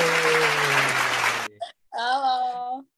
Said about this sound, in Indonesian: langsung aja lah ya kita sambut dengan tepuk tangan yang meriah